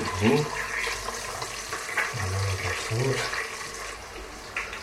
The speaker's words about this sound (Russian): Пока приходится слушать аппетитное шкварчание.